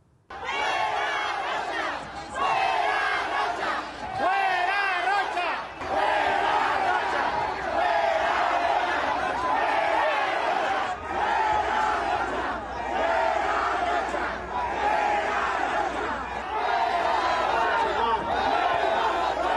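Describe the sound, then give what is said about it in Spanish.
A large crowd chants the protest slogan "Fuera Rocha" against the governor of Sinaloa at the president's vehicle arriving in Mazatlán, Mexico, in loud, continuous unison, voices swelling in repeated rhythmic waves for the whole stretch, dense with overlapping shouts. “Rocha fuera Rocha y el presidente tranquilo baja la ventanilla de la, camioneta, habla con las personas”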